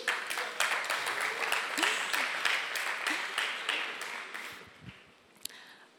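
An audience applauds with dense, steady clapping that holds for several seconds, then gradually thins and fades, with a few scattered claps near the end.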